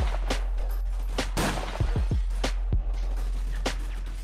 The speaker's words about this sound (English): Um, so gunfire um, Ian's choice. Several bullets later, everyone is dead.